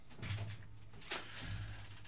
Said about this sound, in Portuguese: percebendo que a porta está apenas com um trinco, abre-a.